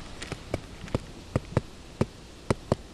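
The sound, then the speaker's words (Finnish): A stick knocks on soft, rotten wood, roughly nine short hollow taps in an uneven, woodpecker-like rhythm, distinct against a quiet outdoor background, with no one talking. “Joku tikka voi tulla katsoa, että kukas täällä koputtelee.”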